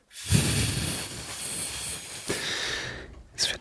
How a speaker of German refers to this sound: Es ist äh, ja, ich werde auch gleich ähm, unseren ähm, unseren Ventilator, der neu angekommen ist, endlich mal wieder einschalten.